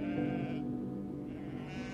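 A sheep bleats in a long, wavering cry that stays loud for about two seconds, with no talking around it.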